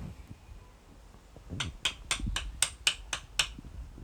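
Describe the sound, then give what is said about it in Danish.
About eight sharp wooden knocks in a steady, quick rhythm, like a woodpecker tapping, from hammering while a croquet course is being set up, against a quiet outdoor background. “Det var altså lyden af en øh, krokketbane, der blev etableret.”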